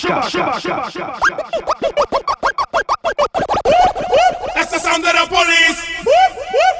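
Rapid turntable scratching dominates, with quick rhythmic back-and-forth swipes chopping up vocal snippets over a DJ mix, building into denser cut-up phrases toward the end.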